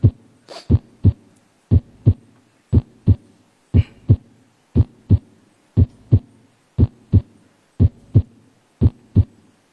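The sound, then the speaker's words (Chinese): A normal heartbeat: steady, evenly spaced lub-dub pairs of dull, low thumps, about one beat per second for ten cycles, with no voices. “大家先听听这个正常的心心脏的声音是什么样。”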